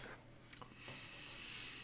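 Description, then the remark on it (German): A few soft, quick computer keyboard clicks, irregularly spaced, as someone searches online, over a faint steady background hum; no one speaks. “Ich habe gehört, wie du die Tastatur bedient hast, dass du gerade gegoogelt hast.”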